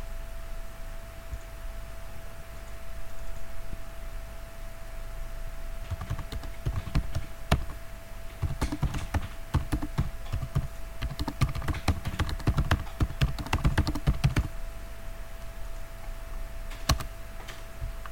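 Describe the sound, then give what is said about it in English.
Rapid typing of a message on a computer keyboard in irregular bursts of clicks and clacks, with a steady electrical hum underneath and a quiet stretch before the keystrokes begin; no one speaks. “Um, I will try to type in a message.”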